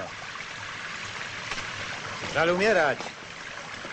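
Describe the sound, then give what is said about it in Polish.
Rain drizzles steadily, a soft, even hiss that fills the whole clip. Partway through, a man speaks briefly over it. “Tak deszcz.”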